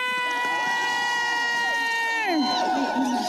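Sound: rally crowd cheering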